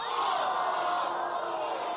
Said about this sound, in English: Thank you, everybody. Thank you. Shut up. Shut up. Just all of you, just shut. You don't have to clap and cheer at everything. Okay? I appreciate it, but calm down.